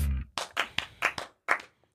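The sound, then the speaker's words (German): A short burst of hand clapping by the hosts right after their intro: roughly eight sharp claps in an uneven, loose rhythm, fairly loud, with no talking over it. “Wir klatschen immer, ja, nachdem oh. unser Intro kommt.”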